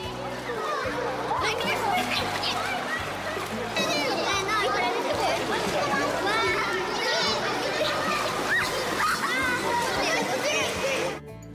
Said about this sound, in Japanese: 泳いだり潜る練習をしたり子どもたちは思い思いにプール遊びを満喫しました